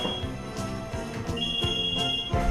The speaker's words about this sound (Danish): Men midt i oplæsningen ringer det pludselig på døren.